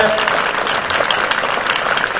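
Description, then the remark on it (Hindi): Loud, sustained applause from a large audience clapping in thanks to God, a dense wash of clapping that stays steady throughout with no break, a few faint voices mixed into the noise. “और आज हम खुदावन के हजूर मौजूद हैं कि आप सब खुदावन का शुक्र अदा करने और खुदावन के लिए जो है वो खुश हैं तो आइए हम जोरदार तालियों के साथ जो है”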